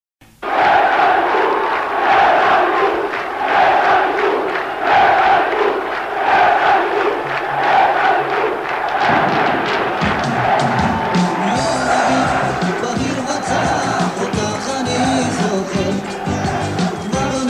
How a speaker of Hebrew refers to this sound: כך נפתחת קלטת האליפות של עונת 97-98. קריאות היש אליפות הפשוטות כל כך